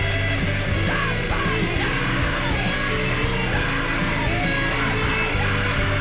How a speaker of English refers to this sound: This is kind of grungy. It was pretty cool. There's a little screaming here.